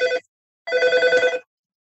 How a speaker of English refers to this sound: Sorry about the phone.